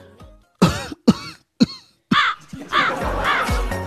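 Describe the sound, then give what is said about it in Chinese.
A voice imitates coughing: three sharp, loud bursts a moment apart, then a longer run of raspy, strained, voiced hacking sounds with no speech. “只见老外听到后一脸懵逼，以为是我这同事话说到一半自己先咳嗽起来，瞬间就被吓跑了。”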